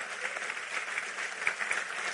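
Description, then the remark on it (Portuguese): A crowd claps for Jesus of Nazareth, a steady, dense wash of many overlapping hand claps with a bright, crackling texture, holding at an even loudness throughout with no voices standing out. “Aplauda ele, portanto, está na nossa mão.”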